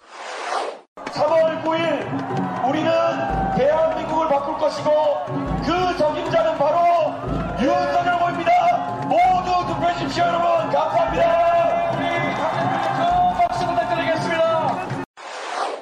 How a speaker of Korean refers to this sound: 그 대북 사운드 포항 유세 당시의 대북 사운드입니다. 들어보시죠.